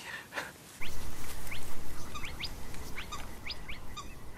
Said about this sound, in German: Doch wenig später erwacht das Schutzgebiet im unteren Odertal hörbar zum Leben. Also Tüpfelsumpfhuhn, drei Rufer, die da am Rufen sind.